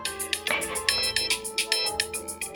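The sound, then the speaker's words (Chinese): The iPhone's default alarm ringtone, titled Seaside (海边): a bright, light electronic tune of quick repeating tonal notes in a steady rhythm, bell-like and cheerful, with a soft low accompaniment underneath and no voices. “因为我用的是 iPhone 的预设的，我原本很喜欢，给大家听一下。”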